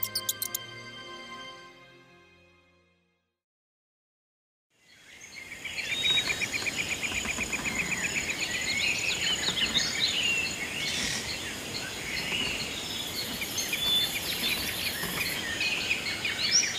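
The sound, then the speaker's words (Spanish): Birds trill and chirp in a dense jungle chorus in the mountains, high bright calls layered over a steady hiss of insects. The chorus rises after a brief fade to silence and continues without any talking. “Ansioso por la selva, Crispín percibe la humedad de las montañas, el trinar de las aves y el crepitar de los peces.”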